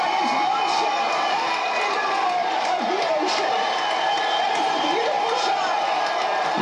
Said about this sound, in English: There's, there's no flashing sign that's saying applause. These people are legitimately going nuts.